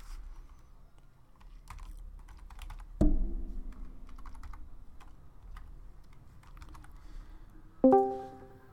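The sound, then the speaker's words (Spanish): Steady, fairly quiet clatter of someone typing a message into a chat on a computer keyboard, keys clicking in quick irregular bursts, with two short ringing tones sounding over it partway through and near the end. “Déjale, pongo en el chat porque creo que no está escuchando y quiere que está hablando.”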